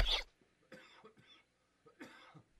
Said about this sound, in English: Here we go. I don't cough till I get on the air with you.